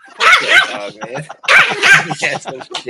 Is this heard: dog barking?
yes